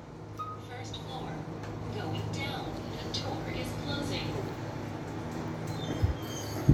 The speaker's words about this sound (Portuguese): Só um pouquinho que vai ter o barulho do, do elevador agora.